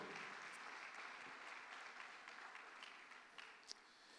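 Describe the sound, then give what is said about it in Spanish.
An audience applauds steadily in praise of the King of Glory during a church service, a dense wash of many hands clapping together that holds throughout and fades slightly toward the end, with no talking over it. “Déselo fuerte al Rey de la Gloria.”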